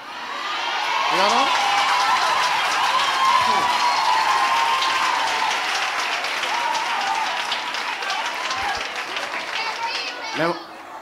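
Loud, sustained applause from a large audience, rolling on steadily without a break, with scattered shouts, cheers and whistles rising out of the clapping.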